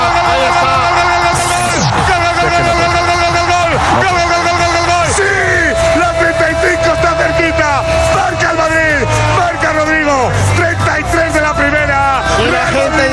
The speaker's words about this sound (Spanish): desatada al grito de campeones, campeones.